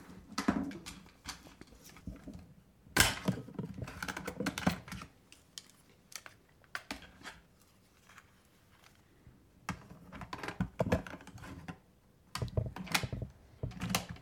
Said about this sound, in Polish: Teraz zmieniam kasetę.